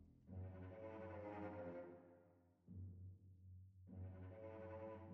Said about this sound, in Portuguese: tu vai ter que deixar isso no áudio depois o pessoal escutar os roncos.